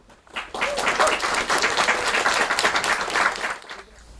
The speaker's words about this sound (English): Um, we're here tonight for the launch of Poetry for the Many. Um, so please give a big round of applause for Margaret Busby and Jeremy Corbyn.